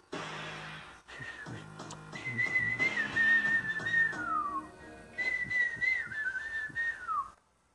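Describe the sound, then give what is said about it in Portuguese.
Someone whistles in imitation of a little bird: two high, warbling phrases, each ending in a downward glide, with a soft, steady background underneath. “Mas é uma borboleta linda, colorida, de, de árvores, ela pega esse passarinho.”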